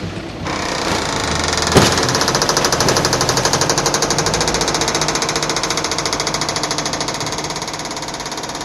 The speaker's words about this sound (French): des camions euh, vides, et il y a une chargeuse qui pousse et qui entasse